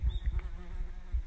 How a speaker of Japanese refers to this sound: 3匹来た。ハエも綺麗ですよね。やっぱりメタリックで、こいつは、うん、緑、うん、うん、エメラルドエメラルド色うん、メタリックエメラ、なエメラルド。ちょっとゼブラも入ってる。